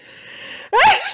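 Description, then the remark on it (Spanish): A single loud sneeze: a brief drawn-in breath builds up, then breaks into a sharp, explosive burst that trails off quickly. No one speaks. “Jesús te ampare.”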